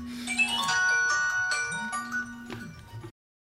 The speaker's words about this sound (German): Ja, das grausame Telefon.